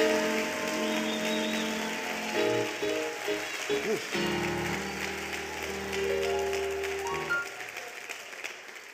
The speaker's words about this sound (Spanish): Aleluya un aplauso fuerte a Jesús, por favor. Aleluya.